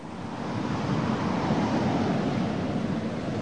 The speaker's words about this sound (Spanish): El fiordo tenía en aquel lugar una anchura de casi media milla. Las olas rompían con estrépito en las agudas rocas.